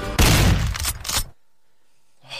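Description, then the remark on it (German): A loud burst of gunfire-like cracks and a thudding blast, a sound effect in a show's jingle, fill about a second, then cut off abruptly to silence before a faint tone returns at the end. “immer noch die Knarren.”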